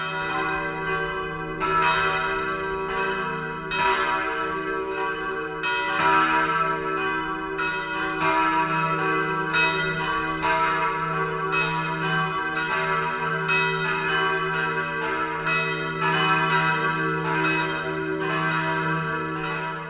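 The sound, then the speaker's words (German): Several church bells in Wolkshausen, Lower Franconia, Bavaria, ring together in a full, continuous 12 o'clock midday peal, their overlapping strikes and long humming tones sounding loud for the whole stretch, with no voices. “Das Mittagsläuten kommt heute aus Wolkshausen in Unterfranken.”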